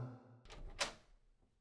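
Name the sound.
door being opened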